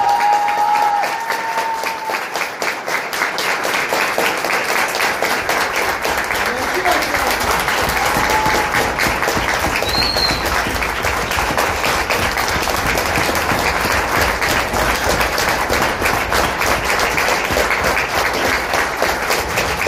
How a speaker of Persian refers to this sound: با تمام انرژیمون اه، تشویق میکنیم